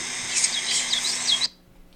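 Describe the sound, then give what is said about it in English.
Doves and other birds calling in a morning chorus near a teepee tent, one dove perched on its tip, repeated high chirps and sweeping notes over a steady hiss, fairly close, cutting off abruptly after about a second and a half. “And we can hear like all these doves and like all the birds in the morning.”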